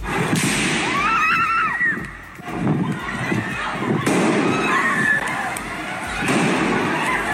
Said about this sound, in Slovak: V nedeľu po obede sa v kodanskom obchodnom mieste strieľalo.